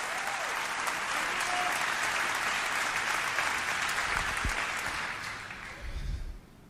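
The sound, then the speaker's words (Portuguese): A large church audience applauds and cheers steadily during a morning service, a dense wash of clapping with scattered shouts of praise, sustained for several seconds before tapering off near the end. “Oh, quantos podem encher esta casa com algum barulho de glória a Deus e de aleluia esta manhã?”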